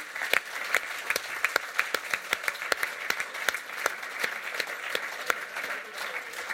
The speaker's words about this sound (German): Hey, merci vielmals yes, euch. Yes, Applaus. Merci auch. Merci.